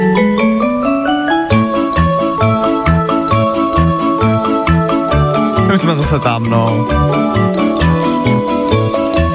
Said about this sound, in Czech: hele, tohle je třeba znělka z kouzelné školky a na kouzelnou školku jsme asi koukali úplně všichni a to víme.